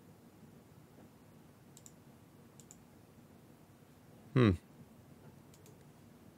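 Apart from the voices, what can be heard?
computer mouse clicking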